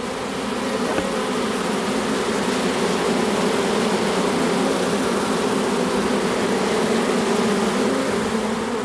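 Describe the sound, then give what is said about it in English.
A dense, steady drone of thousands of honeybees flapping their wings to signal to the others that the queen is in the box, loud, a continuous hum with no pauses and no voices. “That is the noise of thousands of bees flapping their wings, telling everybody else the queen's in the box.”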